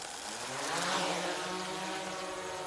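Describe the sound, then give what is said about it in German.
A drone's propellers spin up at takeoff: a steady, high-pitched mechanical whine with a dense buzzing drone, swelling slightly in loudness near the start and then holding steady, with no voices. “Dafür muss ich die Drohne bewegen und zwar einmal in die eine Richtung und dann einmal so rum.”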